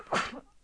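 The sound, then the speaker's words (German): A single short, sharp sneeze bursts out, a quick explosive rush of breath that fades within a fraction of a second. “Entschuldigung. Äh, Gesundheit.”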